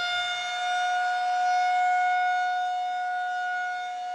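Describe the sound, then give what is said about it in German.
A loud, steady alarm siren holds one sustained, piercing tone for several seconds, with only slight swells in volume and no voices. “Ich stelle mir das ein bisschen vor wie so ein Alarmsignal in unserem Kopf. Es ist super laut und blinkt total hell.”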